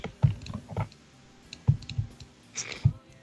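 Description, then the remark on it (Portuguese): Quick clusters of soft clicks and taps, like keys being pressed on a computer keyboard by someone working, come in short irregular bursts with small pauses between them. The sound is fairly quiet. “Quem tá é- digitando, para de digitar.”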